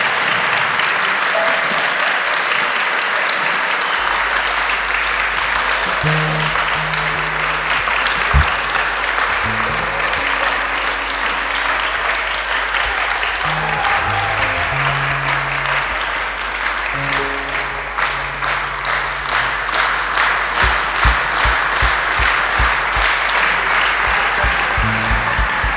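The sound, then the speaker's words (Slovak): An audience applauds a band with sustained, dense clapping that stays loud throughout, with a few low instrument tones sounding under it and sharper individual claps toward the end. “Veľmi som rád, že ste privítali kapelu takým úžasným potleskom, takže je to super”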